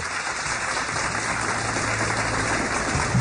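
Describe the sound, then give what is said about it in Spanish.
Steady applause from a crowd during the live show Bla Bla Blue, a dense continuous patter of many hands clapping at an even, fairly loud level for a few seconds with no voices over it. “Sí, un aplauso”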